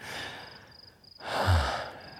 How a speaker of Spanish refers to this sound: Puedo oír tu respiración haciéndose cada vez más fuerte. Debe ser porque te estás excitando muy rápido.